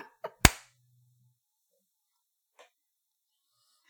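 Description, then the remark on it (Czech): One sharp, loud hand clap rings out right after a softer short click, followed by near silence and a faint tap a couple of seconds later. “Tleskneš, prosím ti, a ty na mě koukáš, že?”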